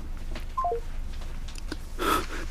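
A quick run of three short electronic beeps, like phone keypad tones, sounds at moderate volume, followed moments later by a brighter, noisier burst with a tone in it, over faint background hiss.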